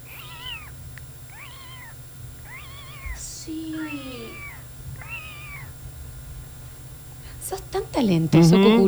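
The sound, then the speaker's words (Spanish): A person imitates a very young baby kitten with about five high, thin mews in steady succession, followed by louder talking near the end. “Yo te hace hacer re bien un gatito muy bebé.”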